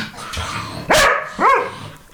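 A galgo greyhound gives two sharp, mid-pitched barks about half a second apart, each rising then falling, with a low background hum between them and no talking.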